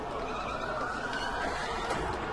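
A racing car under heavy braking, its wheels locking and skidding, with a steady roar of engine and tire noise, loud, holding level for a couple of seconds with no voices.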